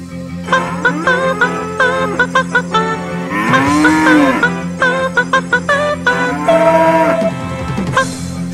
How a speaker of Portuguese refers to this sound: Chegou, cadê a vaca? Cadê a... Onde está a vaca?